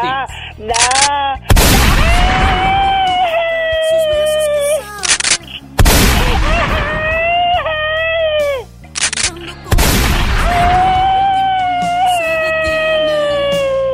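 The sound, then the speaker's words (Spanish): Three loud, sharp pistol gunshot blasts spaced a few seconds apart, each trailing into a long, wavering ringing whine, like a cartoonish sound effect with no one talking. “Te digo, nomás por eso déjame saco la pistola para que te alivie.”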